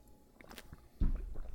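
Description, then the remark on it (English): A sip of H2O-brand water: soft wet slurping and lip smacks, then a heavier gulp as it's swallowed, quiet and intimate with no one talking. “Um, I'm going to take a sip right now and, and I'll explain my experience.”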